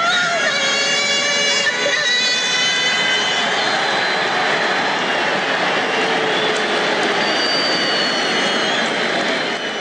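A large stadium crowd roars loudly and continuously, a dense wall of shouting, whistling and jeering that stays intense for the whole stretch with no single voice standing out.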